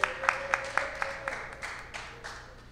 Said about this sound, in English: Yo, go, go ahead, give him a round of applause. Y'all ain't gotta wait for me. Go ahead.